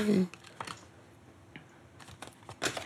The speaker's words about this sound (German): Dann fummel ich das mal aus meiner Originalkassette mal äh, raus.